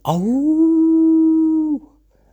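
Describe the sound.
A person imitates a wolf howl, the way wolves call at night, with one loud, sustained vocal tone that sweeps up quickly, holds steady for under two seconds, then cuts off, with no other sound around it.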